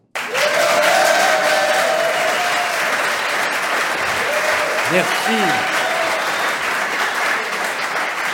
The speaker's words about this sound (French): C'est une standing ovation. Alors là, je ne peux pas résister.